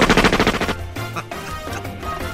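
A rapid burst of machine gun fire, a dozen or so loud, evenly spaced shots in quick succession, followed by a ringing, crackling tail as the burst fades out.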